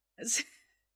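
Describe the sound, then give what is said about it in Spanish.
A dog named Laika gives one short, breathy snore, a quick raspy snort that fades out within a second. It's fairly soft and nobody is talking. “No sé si escucharon de fondo que Laika roncando.”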